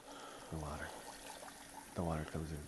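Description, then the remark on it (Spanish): Soda pours steadily with a constant fizzy hiss, broken by two louder gurgling glugs whose tone rises as the liquid flows. Moderately loud, with no talking. “Era soda eso que se estaba echando.”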